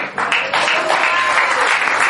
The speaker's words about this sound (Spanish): Dale un aplauso al Señor.